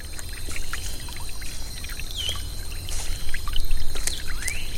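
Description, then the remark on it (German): A small stream about half a metre wide burbles and trickles steadily, with a broad continuous wash of water and occasional birdsong chirps above it. “Zum Rinnsal gesellten sich weitere, bis das Wasser mit etwa einem halben Meter Breite dahinfloss.”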